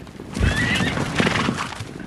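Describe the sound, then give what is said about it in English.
A wild mustang whinnies loudly and shrilly near the start, while the dull thud of many hooves rumbles continuously underneath, a thundering herd of wild mustangs on the move across sagebrush-covered high-desert badlands in northern Wyoming. “But in this empty quarter of the cowboy state is a thundering herd of Mustangs.”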